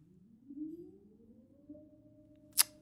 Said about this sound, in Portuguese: Um, pá, desculpem lá agora, isto destabilizou-me uma beca. Estar a ouvir gritos e portas a bater e tudo, sei lá, o que é que um gajo há de fazer.